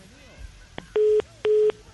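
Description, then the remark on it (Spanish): Two loud, steady beeps of a telephone busy signal, each about a quarter second long with a short gap between them, apparently imitated by a voice, with faint background chatter. “Está en clase de la invención del teléfono. No, no, que, habla, tú, tú, tú.”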